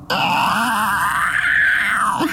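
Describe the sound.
A voice imitates the screeching of hundreds of animals outside a wall: one loud, wavering shriek held for about two seconds, rising slightly in the middle before cutting off.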